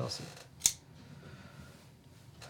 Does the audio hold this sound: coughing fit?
no